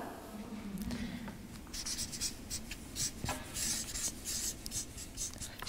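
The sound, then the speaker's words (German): Scratchy strokes of a pen or pencil moving across paper as someone writes a new section, fairly quiet, in short irregular bursts with brief pauses, no voices. “Ich schreibe mal einen neuen Abschnitt mit Gott, oder?”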